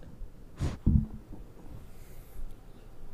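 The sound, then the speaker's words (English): A female dog sniffs right against the microphone: a sharp, breathy burst, then a couple of thumpy, muffled snuffles, followed by faint, quieter sniffs and rustling. “She's sniffing the mic.”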